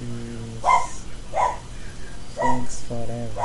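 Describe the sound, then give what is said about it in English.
The speaker's female pet dog, Lilica, barks several times in short, sharp bursts at an uneven pace, while a person talks over and between the barks. “That is my dog.”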